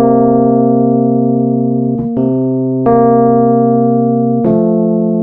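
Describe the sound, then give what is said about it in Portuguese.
Sustained electronic synth tones hold a dissonant, tense two-note interval that shifts pitch a few times, with sharp attacks at each change; steady and loud, with no voices. “Ele já é um intervalo mais tenso que pede, ele chama uma outra nota, ele Perfeito.”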